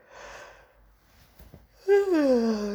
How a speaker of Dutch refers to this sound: Ik begin weer te gapen. Gapen is loslaten.